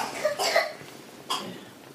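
Two short coughs, the first a harsh double burst and the second a single quieter hack a moment later, with no talking.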